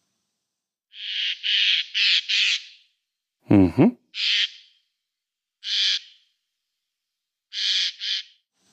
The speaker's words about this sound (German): Ja, der wird auch manchmal als die Waldpolizei tatsächlich oder als Waldwächter Waldpolizei, bezeichnet. Ja, stimmt. Weil, mhm. Waldpolizei, weil dieser, dieser Ruf oft erscheint, wenn der Vogel irgendwie gerade gestresst ist,